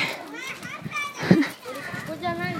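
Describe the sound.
Elementary schoolchildren on their way home from school chatter and call out together outdoors, a lively overlapping babble with one brief louder shout in the middle.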